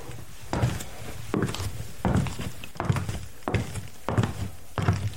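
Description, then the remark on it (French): Foley footsteps made by walking in place on a wooden surface, about five or six hollow, thudding steps at a steady walking pace, fairly loud with no voices. “Si je me mets sur le bois, évidemment, tout change.”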